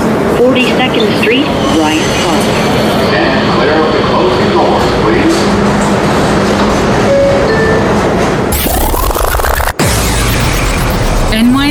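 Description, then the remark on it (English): A loud New York subway train, a Queens-bound E train running via the F line, rumbles and rattles steadily while a recorded voice makes an onboard announcement over the noise, followed by a sharp shift in the rushing sound near the end. “This is a Queens bound E train via the F line.”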